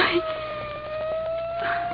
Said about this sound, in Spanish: Oiga usted, ya viene la ambulancia.